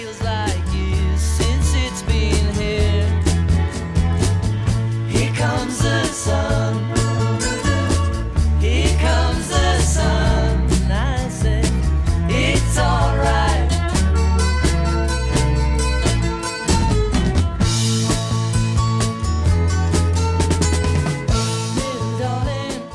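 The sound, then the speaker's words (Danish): A 1960s pop song plays at full volume, with a steady bass line, strummed guitars, drums and a lead vocal melody running continuously throughout. “Hvis man skulle sætte lyd på den, så skulle man bare spille her kommer til sådan lille darling.”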